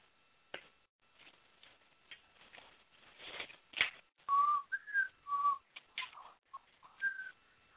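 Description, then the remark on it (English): Someone tries to whistle: breathy, airy puffs give way to a handful of short, thin, wavering notes with gaps between them. No one talks. “yeah, I sound I sound very pathetic when I'm um, with with friends and they start whistling at guys. You know, mine just sounds pathetic.”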